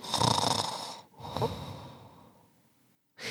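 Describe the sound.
A voice imitates exaggerated cartoon-style snoring: two loud, rasping snore breaths, the second trailing off into a softer whistly exhale.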